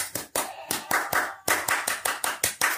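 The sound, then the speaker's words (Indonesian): A rhythmic Indonesian scout (Pramuka) clapping pattern, the "Tepuk Pramuka": roughly a dozen crisp, sharp hand claps in a syncopated sequence with brief pauses between groups, fairly loud, with no voices. “Dan sebelum kita tutup, yuk kita tepuk pramuka sekali lagi supaya pramuka Indonesia tetap jaya. Tepuk pramuka.”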